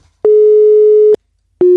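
A telephone busy signal after a call was cut off: a loud, steady electronic tone sounding in long on-off pulses with a short pause between them, heard alone with no voices.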